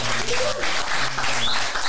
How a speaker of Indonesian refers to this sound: Keren tepuk tangan sih.